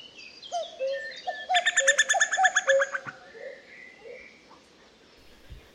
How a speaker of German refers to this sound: Es gibt auch eine weitere Lautäußerung, die im ersten oder auch im zweiten Moment nicht an den Kuckuck denken lässt, sondern eher an einen Zwergtaucher. Und die möchten wir euch jetzt auch nicht vorenthalten.